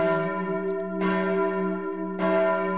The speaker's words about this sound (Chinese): 大家有没有看过灰姑娘的故事？午夜十二点钟一敲，咚，